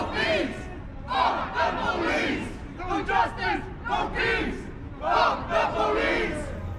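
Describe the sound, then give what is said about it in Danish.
A large crowd of antifascist demonstrators protesting police violence at Møllevångstorget in central Malmö chants protest slogans such as "No justice, no peace" in loud, rhythmic unison, the shouted phrases rising and falling in repeated bursts over a constant backdrop of crowd noise. “demonstrationen, den såkaldt antifascistiske demonstration Stoppa Polisvoldet, blev afholdt på Møllevangstorget inde midt i Malmø.”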